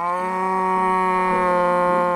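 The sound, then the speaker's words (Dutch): A cow gives one long, steady moo that fills the whole moment, loud, with a droning, even pitch and no voices around it. “Maar je hebt dus ook eh, koeien.”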